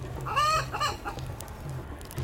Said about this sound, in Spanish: También veo la gallina que escuché en el metro. Está amarrada por las patas y la sostienen de cabeza.